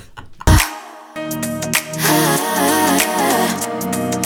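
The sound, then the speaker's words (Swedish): A short musical jingle starts with a sharp thump, then bright synth chords step along in even beats over a steady bass line, with shimmering high accents throughout. “Jingel.”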